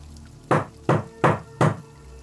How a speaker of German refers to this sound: Etwas klopfte gegen die Wand meines Schlafzimmers. Es kam aus dem Wohnzimmer oder der Küche.